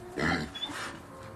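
A hungry pig grunts and snorts, opening with a loud, throaty burst that trails into rougher, shorter grunting. No one speaks over it.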